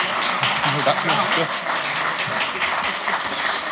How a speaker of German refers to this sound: Großen Applaus.